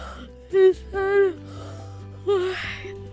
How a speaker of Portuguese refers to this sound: Eu não vou dormir até a hora da festinha. Eu só vou dar um bocejo, tá?